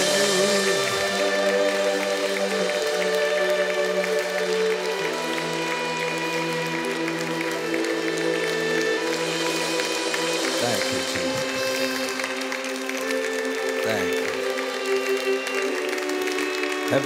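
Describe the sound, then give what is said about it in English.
An audience claps steadily throughout, the dense clapping blending with sustained music playing underneath, filling the room at a constant, moderately loud level with no talking. “As you clap, the river is flowing.”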